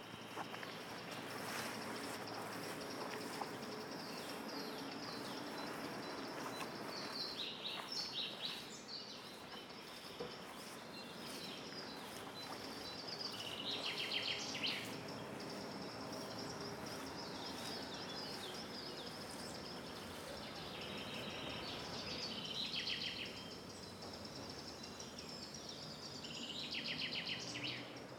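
Steady outdoor forest ambience: a dense bed of insects and rustling air, with scattered bird chirps and calls rising at moments. No one speaks.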